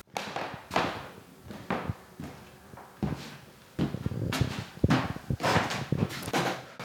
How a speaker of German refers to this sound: Ach, wie das hier knarzt.